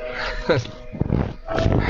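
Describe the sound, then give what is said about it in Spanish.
An Australian shepherd mix dog yips excitedly, a few short, high-pitched bursts spread across two seconds, with a busy background and voices murmuring underneath. “Ay, qué bonito perrito todo loco. Una cruza de pastor. Una cruzita. Australiano.”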